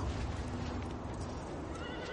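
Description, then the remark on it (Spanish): Restless horses of an army of Unsullied and Dothraki whinny and snort while hooves stamp and paw at the ground beside a frozen plain, a dense, continuous jumble of animal noise with no one speaking. “Algunos caballos manotean inquietos.”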